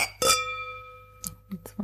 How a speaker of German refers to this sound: Genau, ich stoße jetzt gegen Drei ein anderes Glas an, Ach ja. damit wir das simulieren können. Hier remote. Cheers.